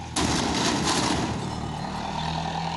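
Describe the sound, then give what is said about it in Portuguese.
A sudden loud crash as a man deliberately rams a truck into a car, then the heavy truck engine rumbles and strains steadily as it reverses for the next few seconds, with no one speaking. “Enfurecido com o fim do relacionamento, o homem bate o caminhão de propósito no carro da ex-companheira.”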